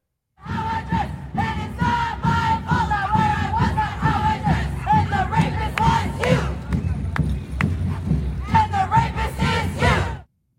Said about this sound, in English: Here's a, a shot from the Women's March of whole scores of people, I don't know, maybe 100 or 150 people out there, uh, dancing and yelling and rapping and saying poetry about how we're all a bunch of rapists. Here they are.